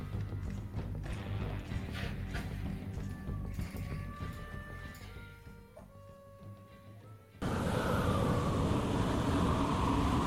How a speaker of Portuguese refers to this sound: Vocês veem que começa a ventar bastante.